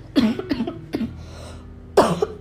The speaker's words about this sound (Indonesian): gue masih batuk tapi nggak ngeluarin reak kayak kemarin-kemarin